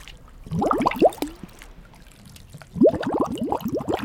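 Two bursts of bubbling in water, with quick rising glugs and pops clustered together, separated by a short quiet gap. No voices.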